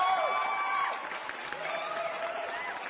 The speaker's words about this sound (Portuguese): palmas para ele, digam rei, digam ho.